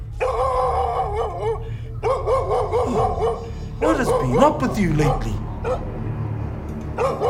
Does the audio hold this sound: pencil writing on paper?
no